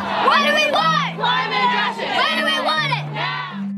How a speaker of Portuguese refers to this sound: Por causa desse contraste, os ativistas gritam: O que nós queremos? Justiça climática! Tudo nós queremos! Agora!